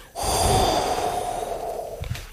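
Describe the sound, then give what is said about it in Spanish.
A person blows a long, steady stream of breathy air, imitating the sound of the wind, fading slightly before a short puff near the end. Fairly loud, with no speech. “Pero Sonido yo, yo, digo, yo digo soplar. Como, como, si, como si tú quieres hacer el sonido del viento.”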